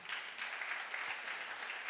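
An audience applauds the Lord steadily, a dense continuous patter of many hands clapping at an even, sustained level throughout, with no voices standing out.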